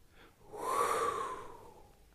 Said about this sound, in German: Wenn wir merken, okay, da hinten kommt ein Hund, ich muss erstmal wieder durchatmen,